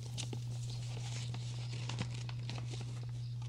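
Papers rustle and crinkle in a steady stream of soft, irregular crackles as someone looks through stats, over a constant low electrical hum, with no one speaking.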